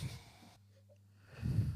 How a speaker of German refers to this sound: So, Nase dran. Ja. Kräftig geschnieft, Es war Holder.